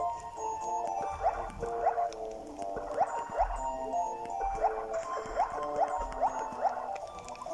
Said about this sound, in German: Und dann gehe ich mal rein ins Wasser. Jetzt schwimme ich gerade. Hört man noch am Sound.